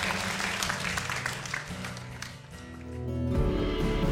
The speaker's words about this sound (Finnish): Eiköhän anneta isot aplodit Jeesukselle.